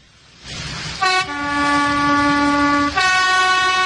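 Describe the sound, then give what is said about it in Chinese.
A small train sounds its whistle before departure to call passengers aboard, two long, steady blasts, the second following right after the first, loud and bright over a low rumbling engine. “小火车拉响小汽笛，提醒大家说：“火车马上就要开啦，乘客们请赶快上车吧。”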